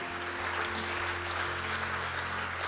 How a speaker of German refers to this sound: Und als Church können wir gemeinsam nochmal einen Applaus geben